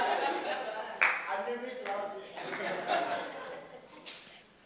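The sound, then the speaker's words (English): An audience claps during a preacher's sermon in a loose, uneven patter that swells and fades over several seconds, mixed with murmuring voices and a bit of laughter. “What kind of clapping is this?”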